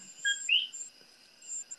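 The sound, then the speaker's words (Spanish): High-pitched chirping calls of coquí frogs ring out over a steady nighttime chorus near a house, with one louder, rising note standing out. No voices are heard. “¿tú estás oyendo un, un silbido o es un grillo tuyo que está allá por tu casa? No, ese es por allá, por tu casa, pero es un coquizo que...”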